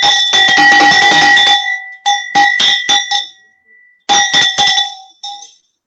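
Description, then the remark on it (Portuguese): A metal chocalho cowbell is shaken hard, clanking in a rapid flurry, then a few separate clangs, a short pause, and another burst of ringing rattles. No voices. “Cadê o chucalho?”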